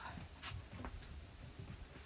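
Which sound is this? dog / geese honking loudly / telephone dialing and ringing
dog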